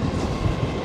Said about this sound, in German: also man hört den Zug im Hintergrund.